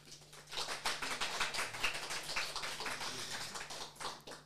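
An audience in a hall at a book discussion event applauds, a dense, steady patter of many hands clapping that runs without a break for several seconds, fairly soft, over a faint low hum.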